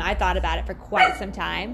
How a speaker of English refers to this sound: That's our dog in the background.